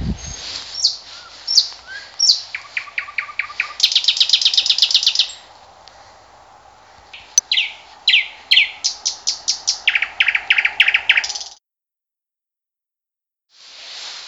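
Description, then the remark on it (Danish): A common nightingale sings loudly at night, pouring out rapid repeated phrases, buzzy rattles and sharp whistles for about eleven seconds before stopping, with faint hiss behind and no talking. “Og nu går jeg lige hen til den ene, så kan I høre lidt nattergale musik her. Den er vældig højlydt.”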